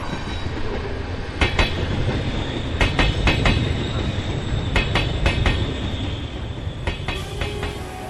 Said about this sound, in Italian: Ogni tanto la nostra chiacchierata si deve interrompere perché il treno accanto a noi sbuffa e cigola.